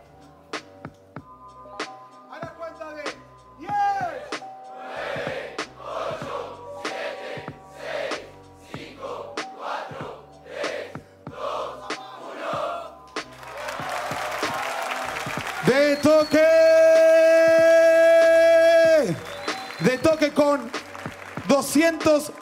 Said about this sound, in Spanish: Un fuerte aplauso para los dos, fuerte, fuerte, fuerte, fuerte